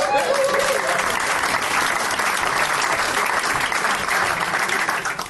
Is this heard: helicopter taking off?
no